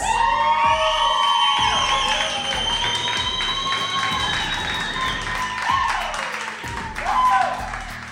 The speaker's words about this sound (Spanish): Aplauso para, aquí.